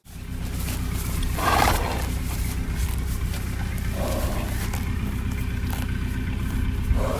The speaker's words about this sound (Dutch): En dat paard briesde om aan te geven aan het andere paard van hier is iets dat niet klopt.